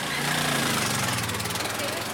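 Tuk-tuk and motorcycle engines putter and rattle steadily on a busy street in San Pedro La Laguna, a lakeside town, a continuous throbbing drone with a rough, pulsing texture throughout.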